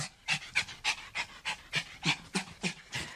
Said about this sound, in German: Hunde können nicht spitzen, um sich abzukühlen, weil sie keine Schweißdrüsen haben. Wenn ihnen zu warm wird, strecken sie deshalb einfach die Zunge raus und hecheln.